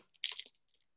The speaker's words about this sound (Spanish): que desde niño a mí me sedujo cuando estaba alfombrada por hojas quebradizas del otoño que se cayeron, y siempre tuve una satisfacción en pisarlas y sentir el crujido, el crujido de una hoja.